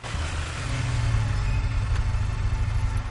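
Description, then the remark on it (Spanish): The engine of a powerful black motorcycle idles after stopping at the main door of a morgue, with a steady low rumble, holding a constant throb for a few seconds with no speech. “Alex conduce su potente moto negra por la carretera del bosque hasta el depósito de cadáveres”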